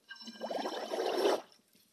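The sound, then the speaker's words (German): A short burst of water with dish soap being stirred with a whisk, a busy wet sloshing and bubbling that builds for about a second and a half, then stops. Fairly loud, with no voices. “Das verrühre ich jetzt mit dem Schneebesen.”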